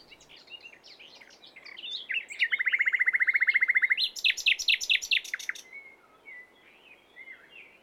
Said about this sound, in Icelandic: Næturgali er lítill fuggl sem að mati sumra syngur best allra fuggla. Við skulum heyra hvernig hann hljómar.